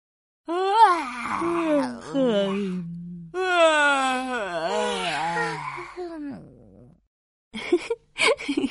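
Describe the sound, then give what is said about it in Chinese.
Two long, drawn-out yawns voiced by a person, each sliding up then wavering down in pitch with a moaning tone, followed by a few short breathy puffs. “连台下的观众们也跟着打起了哈欠呢。”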